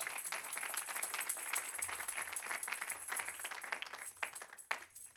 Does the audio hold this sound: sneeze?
no